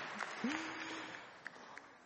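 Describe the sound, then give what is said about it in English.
An audience gives a soft round of applause: a faint, steady wash of clapping with a few sharper claps standing out and a brief low hum-like tone early on. “You can give him a round of applause as well.”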